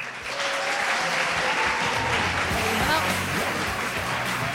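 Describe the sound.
A burst of applause from a small group, steady clapping that fills the whole stretch at a fairly loud, even level, with faint voices mixed in underneath.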